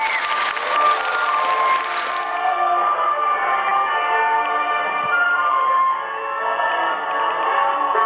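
Steady, loud applause from a crowd welcoming a singer, keeping going for the whole clip, dense and unbroken, with cheering voices mixed in and no one speaking over it.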